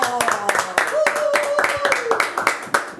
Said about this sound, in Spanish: Fuerte el aplauso